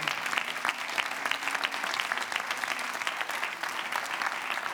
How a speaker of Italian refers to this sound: Fai un applauso di lode al Signore.